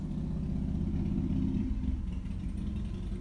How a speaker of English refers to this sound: There's a motorcycle. Hi, motorcycle.